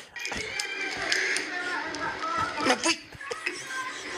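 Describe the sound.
The locked door of an Alko store is tugged and rattled at Easter by someone trying to open it, giving several sharp clunks and jolts at irregular moments, with people talking and background chatter around it.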